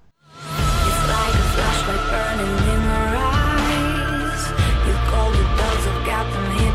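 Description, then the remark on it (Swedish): A pop song bursts in after a brief moment of silence and plays steadily and loudly, with a dense mix of synths, bass and a driving beat throughout. “låt som heter … med, om djur som är förföljda? Jo, den låter så här.”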